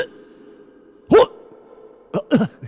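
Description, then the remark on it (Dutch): A voice imitates Mongolian-style guttural throat sounds: three short, rough, growling bursts, fairly loud, over a low, steady droning hum that runs throughout. “Ja, van die Mongoolse keelklanken.”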